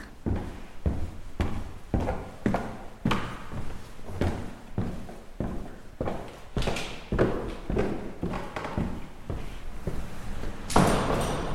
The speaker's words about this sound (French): Bon, et eh bien, allons toquer à la porte des concierges du lieu.